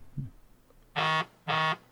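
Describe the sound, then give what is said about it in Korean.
Two loud, identical electronic beeps from a phone alarm, each lasting about a quarter second with a short gap between, harsh and buzzy, with only faint background noise before them. “갑자기 핸드폰 그 알람이 울려가지고.”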